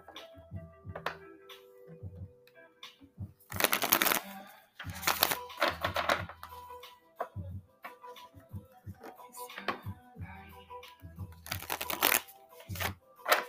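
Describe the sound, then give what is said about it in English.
A deck of cards being shuffled: bursts of crisp riffling and flapping around a few seconds apart, with softer tapping and handling sounds in between, no voices. “These cards are hard to shuffle.”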